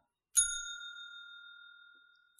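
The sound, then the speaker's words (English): A single bell is struck once, giving a bright, clear ding that rings on with a long, slowly fading shimmer. It is fairly loud, with no voices. “and I'm going to hit the bell now.”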